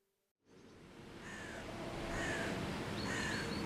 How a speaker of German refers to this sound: Ein Herbstvormittag in Nürnberg. Das ehemalige Reichsparteitagsgelände liegt in warmem Sommerlicht. Vögel zwitschern, auf dem Dutzendteich plätschert das Wasser, auf den Wiesen wird der Rasen gemäht. Eine fast schon idyllische Szene.